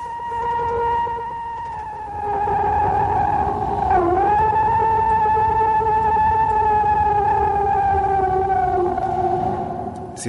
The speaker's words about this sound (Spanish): Dicen, dicen los entendidos que este es el verdadero sonido del Bigfoot, del pie grande, una de las criaturas legendarias de los bosques norteamericanos.